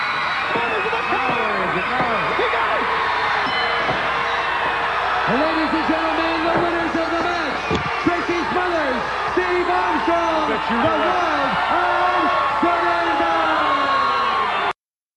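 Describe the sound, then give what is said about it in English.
A large wrestling crowd roars and cheers continuously, a dense wash of many voices with shouts and whoops rising above it, plus a single sharp thud midway through. “Okay, uh, the crowd popped.”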